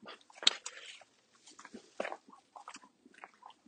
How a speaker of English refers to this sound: The dog barks, but uh, just thinking the field, I think we're going to be safe.